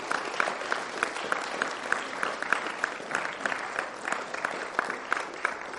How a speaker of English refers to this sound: If you're on any logistics or worship team, can we just give these guys the most massive round of applause?